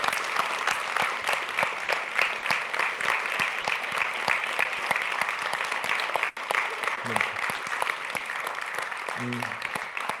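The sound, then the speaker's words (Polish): Sustained audience applause at a human rights congress, rewarding the office staff who stood and waved: a dense steady roar of many hands clapping throughout, briefly dipping near the middle before continuing just as loud to the end. “Miałbym teraz apel, żeby pracownicy biura wstali i pomachali i państwo im, można powiedzieć, wynagrodzili wysiłek.”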